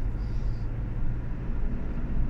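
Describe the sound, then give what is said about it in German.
Steady, loud road roar fills a moving car with the window down, a broad rumbling wash of wind and tire noise with no voices, continuous throughout. “Ich denke, mit Fenster unten wird das ein bisschen laut hier.”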